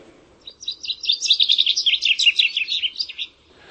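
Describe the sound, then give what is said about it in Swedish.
A chaffinch sings one clear song: a rapid run of bright descending notes lasting about three seconds, closing with a quick trill flourish, with nothing else around it. “Jag skulle vilja tipsa dig om att lyssna till bofinkens sång.”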